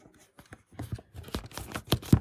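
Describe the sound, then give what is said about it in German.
Quiet handling sounds: light scrapes and small clicks build to a couple of soft thumps as a smartphone is set down directly behind a braille display. No one speaks. “Und ich lege jetzt mal das Handy direkt hinter die Zeile.”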